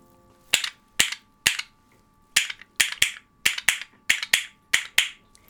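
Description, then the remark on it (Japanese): Traditional red and blue wooden castanets made of North American beech clap sharply, about eleven crisp, bright clicks: three evenly spaced, a short pause, then a quicker steady run, with no voices. “じゃあ私がいわゆる赤と青の古くからあるあのカスタネットを持ちました、うん、これはあの北米産のブナを使ったなるほどえじゃあこちらの音を聞いてみましょう”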